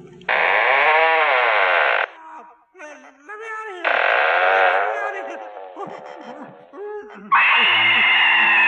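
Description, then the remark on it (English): Eerie ghostly wailing moans from a ghost in a haunted ghostly retreat rise and fall in three loud, sustained bursts, with softer warbling, wavering cries filling the gaps between them. No one speaks. “All our ghosts have been dying to meet you. This one can hardly contain himself.”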